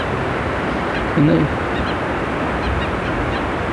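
Harsh, very loud screaming calls of a southern lapwing (quero-quero), about one and a half metres away and staring at the person, repeat several times against a steady rush of wind-like background noise, with a brief louder burst early on.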